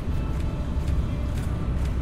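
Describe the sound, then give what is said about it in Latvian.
A steady, deep engine-and-road rumble fills the space, the muffled hum of riding inside a moving car, constant and fairly loud with no voices. “Nu, mēs te varam mašīnā runāt.”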